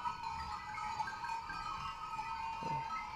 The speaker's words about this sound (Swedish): Jag, jag upplever ju att han skrämmer bort dem. Ja. Jag tycker att det här är... Eh, jag hör rädslan i fåren.